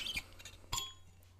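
Two sharp glassy clinks about half a second apart as someone takes a sip of water, the second ringing with a bright, fading high tone, followed by faint rustling.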